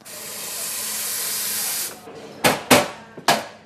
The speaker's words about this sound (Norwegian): Lyden av kaffe.